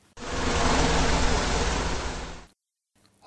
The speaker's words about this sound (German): Und schon schnurrte das Forschermobil weiter zum Fuchsbau, der ganz in der Nähe war.